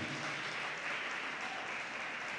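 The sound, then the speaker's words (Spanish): An audience claps their hands in praise to the Lord in a dense, steady wash of applause that holds at an even, fairly loud level throughout, with no voices standing out above it. “Dele palmas fuertemente al Señor.”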